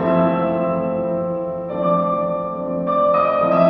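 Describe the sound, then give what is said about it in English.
Piano chords run through a very heavy plate reverb, about three metres by one metre, heard with no dry signal, forming a smeared, sustained wash of tone that shifts to new chords every second or so, steady and fairly loud, with no talking. “And that plate sounds like this on its own.”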